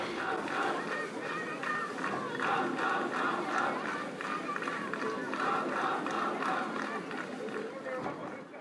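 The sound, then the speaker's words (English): A large protest crowd chants slogans and shouts together, a dense, steady wall of many voices that stays loud for the whole stretch, with a rough rhythmic pulse in the chanting; many police and media are present. “Like you just see a mob of people protesting and talking, but it's usually uh, you have to listen to the slogans to know if they are rightist or leftist.”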